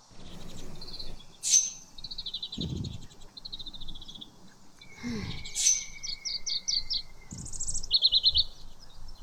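Birds sing outdoors under a tree in 34-degree heat, in bright, repeated chirps and quick trilled phrases, with a thin steady buzz of cicadas briefly underneath and a few low thumps; no one speaks.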